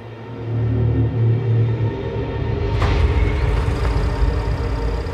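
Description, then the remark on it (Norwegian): Black cars start at a square in the evening darkness and settle into a steady low rumble and idle, with a brief sharp burst of noise partway through. No one speaks. “Lyden av biler som startet, skar gjennom kveldsmørket.”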